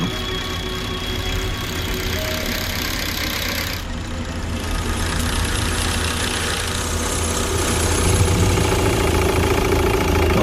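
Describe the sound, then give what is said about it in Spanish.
A car engine runs roughly and unevenly, a steady rumbling idle with knocking irregularities that never cuts out and grows slightly louder near the end. No one speaks. “¿Qué está pasando? ¿Por qué te estás parando?”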